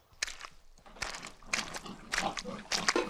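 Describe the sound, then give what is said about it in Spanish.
Pigs grunting and snuffling in a pigsty, a series of short, rough grunts and squeals, with shuffling movement between them and no talking. “Todo el tiempo que estuve en el chiquero, volteaba hacia afuera o seguía uno que otro puerco a ver si me llevaba con él.”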